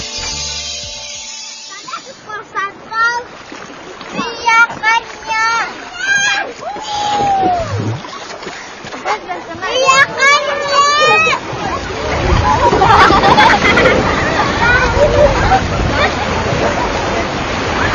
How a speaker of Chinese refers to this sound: 只能听到那个海浪声，那个心情很开朗，那小孩子，那个心情就是这样的。